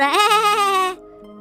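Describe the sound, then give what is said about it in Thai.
A single loud goat bleat with a wavering, quavering tone lasting just under a second before it cuts off, leaving a faint low hum behind; the goat, its head shaved bald, cries out in a fox's den after being stung repeatedly by a bee. “จากนั้นมันก็บินเข้าไปในโพรงของสุนัขจิ้งจอกเกาะบนหัวที่ล้านเลี่ยนจากการถูกโกนของเจ้าแพะ แล้วก็ต่อยมันหลายต่อหลายครั้ง จนมันกระโดดตัวลอย แล้วก็ร้องว่าแบแบ”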